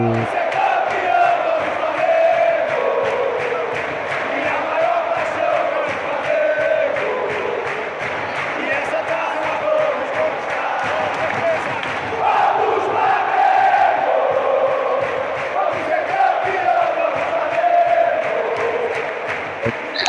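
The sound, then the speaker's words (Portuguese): A big crowd of Flamengo football fans in a stadium sings the chant "Vamos, Flamengo" together, loud and unbroken throughout, with a steady rhythmic pulse of claps or beats running beneath the massed voices. “Outra música que empurra bastante, aquela Vamos, Flamengo.”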